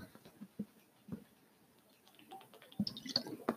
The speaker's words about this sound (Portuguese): Desculpa, tive que tomar uma água porque a minha boca ficou seca.